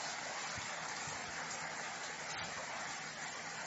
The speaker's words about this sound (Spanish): Pero me encanta cuando llueve. Y yo esté en casa. No me gusta cuando llueve y estoy en la calle.